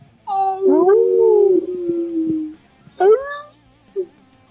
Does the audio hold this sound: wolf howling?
yes